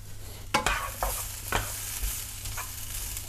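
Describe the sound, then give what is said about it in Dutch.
Vegetables, including green beans, being stirred in a wok: a steady hiss of frying underneath, broken by about six quick metallic scrapes and clatters at a loose, roughly even rhythm, with no one speaking. “Oh, ik ga eerst even mixen.”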